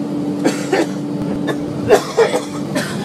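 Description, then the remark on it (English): A man in an airplane seat coughs and wheezes repeatedly in short, harsh bursts, several clusters spread across a few seconds, heard over the steady low engine hum of the aircraft cabin. “Yeah, the, the, the guy in front of me in, in the seat right in front of me coughing and wheezing and coughing and, and and those were the nice coughs.”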